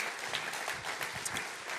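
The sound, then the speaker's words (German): An audience applauds steadily for God, a dense wash of many hands clapping at an even level with no voices over it. “Da können wir Gott mal einen großen Applaus geben.”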